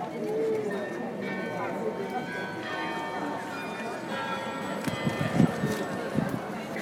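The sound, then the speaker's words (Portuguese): The bell of the West Church (igreja do Oeste) rings out in a steady series of tolls over a bustling street background by the queue for the Anne Frank House, with people talking and footsteps or hooves clattering near the end. “O que vocês ouviram foi o sino da igreja.”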